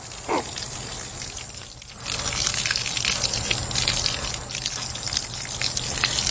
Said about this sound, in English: And that is the precious sound of the water that comes from the roof on top of the Tusten Cochecton Library. They collect the rainwater and that's what's used in the garden.